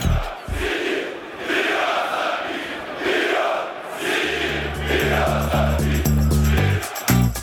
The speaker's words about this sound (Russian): У каждого клуба есть уникальные заряды. Например, многие кричалки «Динамо» заканчиваются упоминанием главной звезды клуба Льва Яшина. Чаще всего последнюю строчку «Только Яшин, только Динамо» фанаты бело-голубых повторяют огромное количество раз.